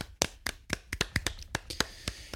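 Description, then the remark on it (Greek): Sharp, crisp hand claps, about a dozen in a slightly uneven rhythm, like a small round of applause from one or a few people, with no voices, applauding and thanking the Patrons. “Οπότε θα κάνουμε 20 επεισόδια αντί για 18 και θα ήθελα ένα μεγάλο χειροκρότημα και ένα τεράστιο ευχαριστώ στους Patrons που το αποφάσισαν αυτό.”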